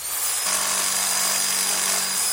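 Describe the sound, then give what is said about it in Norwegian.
A power saw whines steadily through a cut for a couple of seconds, loud, with a harsh buzzing tone and no voices. “Here's a saw to help cut down my mortgage”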